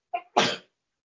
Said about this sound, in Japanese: すごいくしゃみが、ね、多分は入ってると思うんです